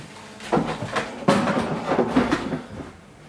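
Someone unloads a dishwasher while waiting for a cake to bake: a handful of sharp clinks and clatters of dishes being set down, with soft rustling between them and no talking.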